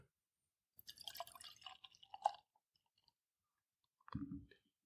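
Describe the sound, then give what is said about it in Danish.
Deep red beer pours from a white can and drips over a hand held beneath it, a second or so of trickling, splattering drops, then a pause and one short, louder splash. No one speaks. “Det, I ikke kunne se, det var Anders, han sidder og holder en hånd under, mens jeg hælder”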